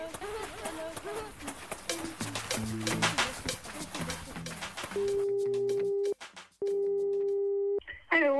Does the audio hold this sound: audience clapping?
no